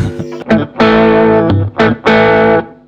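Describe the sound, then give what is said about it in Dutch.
Electric guitar played through the drive side of an overdrive pedal: thick, gritty sustained chords with a short stab, then long held notes, loud and saturated with a buzzing harmonic edge. “En dan heb je de andere kant. Die zou iets meer drive moeten geven.”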